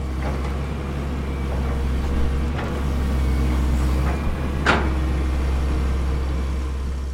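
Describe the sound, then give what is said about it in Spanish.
Heavy construction machinery drones steadily at a construction site near a riverbank, where a backhoe digs up soil and a dump truck unloads earth: a deep engine rumble with a constant low hum, broken by a couple of brief metallic knocks and one sharp hiss-like burst. No one speaks. “Lo siento por el ruido, pero es que es imposible escapar de él. Estábamos en medio de una construcción.”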